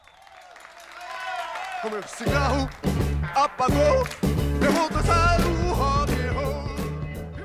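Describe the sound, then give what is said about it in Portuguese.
A song plays in a car with a sung vocal line, starting sparse and quiet, then filling out after a couple of seconds with a steady, pulsing bass beat underneath. “tocou essa música aqui, uma música dos …, que essa música você está ouvindo aqui embaixo”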